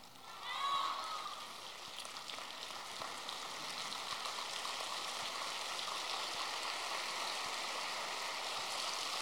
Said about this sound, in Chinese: 这个掌声有点像下毛毛雨一样的。以后你们知道了啊！以后我假装从上面看，就是这个雨怎么下不下来，你们就使劲鼓掌。